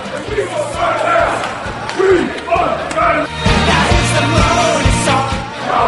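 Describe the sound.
A large crowd of about 300 football fans, Cheltenham supporters joined by Sint-Truiden fans, chants loudly in rhythmic unison on a march in Sint-Truiden, voices rising and falling in steady pulses with occasional louder shouts breaking through the dense roar.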